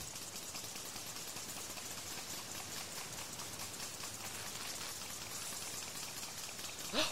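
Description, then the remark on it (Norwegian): An agricultural field sprinkler sprays water in a steady, dense hiss that runs unbroken for several seconds as it swings back and forth very fast. A brief louder bump comes at the very end, and no one speaks. “du vet sånn som er på jorder? Det er sånn der sånn som s- sånn spruter ut vann.”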